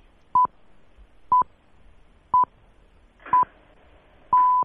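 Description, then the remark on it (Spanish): A radio hourly time signal: five crisp, mid-pitched beeps one second apart, the last held noticeably longer, standing alone against a quiet background. “Escuchamos las señales horarias.”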